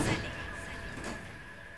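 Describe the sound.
A door of a house at the foot of a lighthouse by the sea is pushed shut: a soft thump at the start and a second knock about a second later, over a steady background hum and faint murmuring voices.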